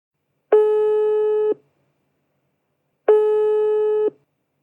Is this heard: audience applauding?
no